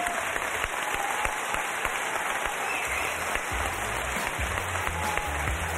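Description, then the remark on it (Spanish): A steady burst of applause for a quiz contestant who answered 6 of 10 questions correctly, dense crackling claps spread evenly across several seconds at moderate loudness, with no voices over it. “Pero un aplauso, claro que sí.”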